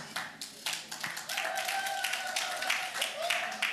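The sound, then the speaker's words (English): A crowd claps steadily for a few seconds, sharp overlapping slaps building into continuous applause, with a sustained voice or cheer rising above it partway through. “Some of you that are clapping like that, you don't know PMs.”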